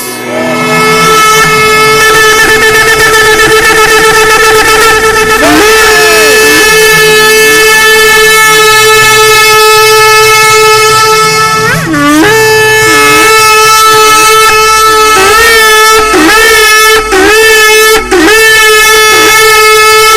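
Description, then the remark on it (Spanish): A loud, sustained trumpet blast that holds one brassy, harmonic-rich note for about twenty seconds, its pitch dipping and swooping briefly several times, mostly toward the end, with no voices. “Cuando él oía ese sonido de esa trompeta, decía, mi hijo, mi hija, son libres.”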